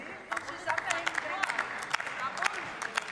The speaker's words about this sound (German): Die gegenüberliegende Seite des Plenums, bevor Sie zu laut klatschen, steht Ihnen dabei aber nichts nach.